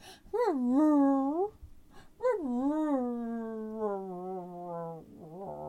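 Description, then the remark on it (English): A person mimics a dog's mournful whine: two drawn-out, wavering wails, the first short and rising, the second long and slowly sinking, then a brief broken whimper at the end. “And he finally he lays his head right down on the edge of the boat trailer and he's going”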